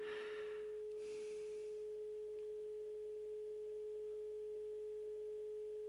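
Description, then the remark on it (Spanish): A telephone receiver left off the hook gives its off-hook tone: one steady, unbroken mid-low pitch that drones on without pause, softly, after a brief rustling noise at the start. No one speaks. “No me queda otra cosa más que dejar descolgado el teléfono.”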